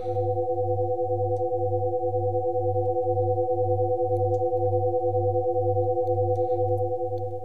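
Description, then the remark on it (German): Steady electronic tones hum continuously, layered with a low pulsing drone that throbs at an even rhythm, about twice per second, with no voices: an 'Awakened Mind' binaural beats track, about 20 minutes long, meant for headphone listening. “und zwingen also das Gehirn quasi diesen Frequenzbereich oder diese Binaural Beats zu adaptieren.”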